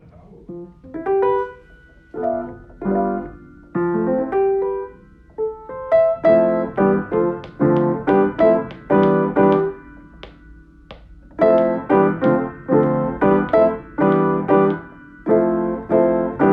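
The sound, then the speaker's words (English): Piano chords that sound a bit like the Rugrats intro, played in short, bouncy repeated bursts with brief pauses between phrases, captured on a phone voice note that sounds slightly thin and lo-fi, with no talking. “I started playing these chords that sound a bit like the Rugrats intro”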